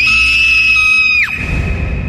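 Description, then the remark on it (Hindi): A woman's loud, piercing scream of terror, held at one high pitch for over a second before breaking off sharply, followed by a low rumbling thud as she collapses unconscious onto the floor. “अब खुशी के डर की सारी सीमाएं पार हो चुकी थी जोर की चीख के साथ”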